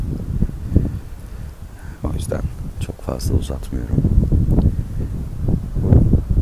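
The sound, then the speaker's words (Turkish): Gusty wind buffets the microphone with a low, rumbling roar that rises and falls throughout, heavy, under a person speaking steadily. “gürültüde rüzgar ve kayıt nasıl oldu onu da bilmiyorum.”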